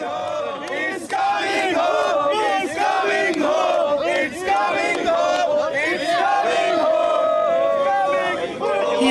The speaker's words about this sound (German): hören wir den Jubel von englischen Fans.